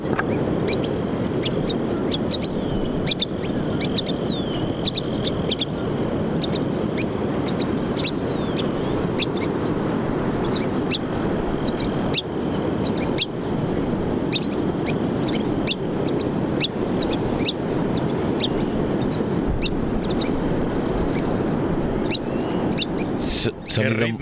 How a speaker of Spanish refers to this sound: Sonido muy discreto y de fondo oímos el mar, el oleaje, ¿no? Estamos en la mm. costa. Entonces, bueno, esta grabación no es muy buena, tiene mucho sonido de fondo, eh, muy sí, con viento, ¿no? es un sonido maravilloso.